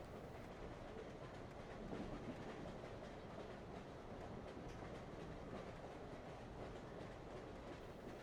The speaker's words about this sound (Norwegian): Men så passerer motgående tog, og det er igjen klart for avgang.